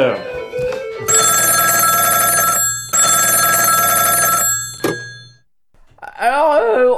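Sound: telephone ringing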